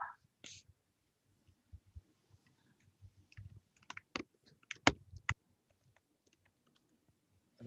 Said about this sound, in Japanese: タイプ音が入った